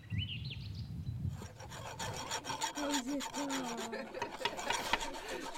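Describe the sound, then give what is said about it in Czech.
At a summer camp at Machův mlín, seven campers rasp steadily with hand files against metal coins (camp pendants), producing dense, overlapping scraping strokes that continue throughout, with a faint high whistle-like tone at the start and soft voices in the background. “Vidíme tady dva, čtyři, šest, sedm táborových kamarádů, každý z nich je obdařen pilníkem a pilně, jak jinak s pilníkem, pilně brousí takřka už”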